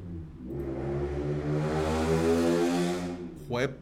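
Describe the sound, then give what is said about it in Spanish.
A loud, motorbike-like engine roars past outside in El Salvador, a steady buzzing drone that swells and holds for a few seconds before a short, rising rev at the end. “Yo no creo que eso sea una moto.”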